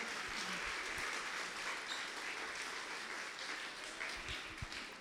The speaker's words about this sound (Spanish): Dele un aplauso fuerte a Jesús en esta hora.